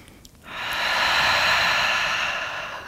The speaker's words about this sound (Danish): Så et par dybe vejrtrækninger her.